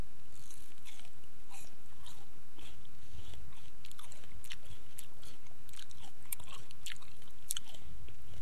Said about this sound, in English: All right. Well, here it goes. I'm going to eat a starfruit. And I'm going to as well. All right. Here goes.